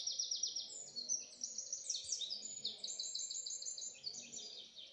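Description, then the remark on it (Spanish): Several birds sing and chirp continuously in high, rapid trills and tweets in nature, layered over a soft low background murmur with no clear voices. “De fondo, acompañado por el canto de los pájaros.”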